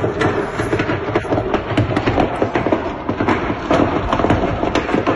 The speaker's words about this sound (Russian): Че там так стреляет, непонятно. Как будто у нее там залежи фейерверков.